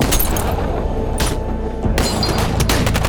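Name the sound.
gunfire exchange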